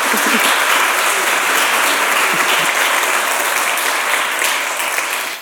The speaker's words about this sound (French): Quelle ambassadrice de nos lettres. Applaudissons-la, s'il vous plaît.